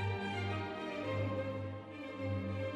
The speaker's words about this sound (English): Hands can do incredible things. This is the sound of 326 hands playing Mozart.